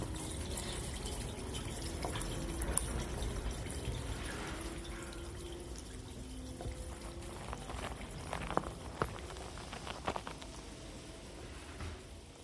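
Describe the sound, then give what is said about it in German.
Water drips steadily from pipes amid a low, broad background wash, with scattered sharper drip clicks standing out near the end; no one speaks. “Rohre tropfen.”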